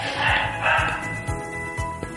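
A dog barks twice in quick succession, fairly close and moderately loud, followed by quieter yips over a steady low background hum, with no one speaking.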